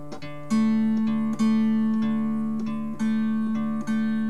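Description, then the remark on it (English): A three-string plucked instrument plays a quick run of low and middle notes on the bass and middle strings, several clear attacks in a loose rhythm forming a simple bass line in the background while the sustained melody notes ring on and decay. No talking. “So I'm doing a lot of busy work on the bass and on the middle string. You'll hear me doing things like this.”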